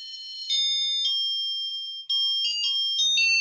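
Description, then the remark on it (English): A bright, electronic doorbell-like tune plays a quick series of high chime notes that step up and down in pitch, steady and fairly loud with no voices over it. “Lisa, you ought to be a doorbell salesman.”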